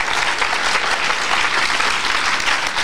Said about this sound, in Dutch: En, applaus. Nog een applaus.